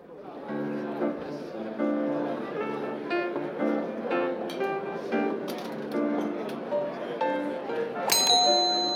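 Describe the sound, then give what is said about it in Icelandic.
Gentle piano melody played by a pianist in a busy fine restaurant, with a steady murmur of chatter around it and a bright clink of glasses near the end. “Fyrsta þraut ársins er í höndum píanista á fínu veitingastað sem spilar undurfæra tóna á píanóið. Í bland við skvaldur og klingjandi glöðs getur verið svolítið erfitt að heyra hvaða lag er píanóleikarin að spila.”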